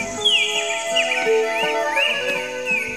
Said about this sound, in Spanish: al llegar al río se encontró con varias aves que estaban también tomando agua. Había cardenales,